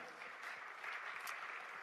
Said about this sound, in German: Also merkst du, ja, vielen Dank, Applaus.